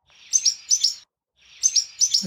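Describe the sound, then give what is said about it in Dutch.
A warbler mimicking a barn swallow's alarm call: two bursts of sharp, high paired chirps, each a quick double 'tsi-wit' repeated, separated by a brief pause. Clear, with no voices. “De eerste twee noten die hoort toch heel duidelijk de alarm van de boerenzwaluw.”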